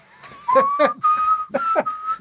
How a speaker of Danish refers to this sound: Jeg kommer ikke til at sige noget, før jeg har hørt den fløjt.